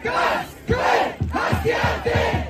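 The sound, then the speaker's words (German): A large crowd at a street protest against right-wing extremism in Cologne, Germany, chants in loud, rhythmic unison, repeating a short phrase in steady bursts with brief pauses, the massed voices echoing as if outdoors. “Zehntausende sind bundesweit auf die Straßen gegangen, um gegen Rechtsextremismus zu protestieren und für unsere Demokratie einzustehen.”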